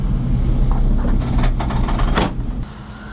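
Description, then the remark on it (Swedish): Cable car doors at the cable car terminal in Kitzbühel slide shut automatically over a steady low mechanical rumble, with a hissing, rattling slide building up and ending in an abrupt thud as the doors close. “Ja, då stänger jag automatiskt.”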